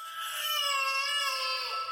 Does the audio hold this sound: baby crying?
yes